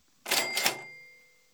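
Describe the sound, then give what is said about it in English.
A classic cash register cha-ching: a quick double burst of bright metallic clatter followed by a ringing bell tone that slowly fades out, heard clearly on its own with no talking. “Thank you, Jeff, for the cash registers signifying deal of the week.”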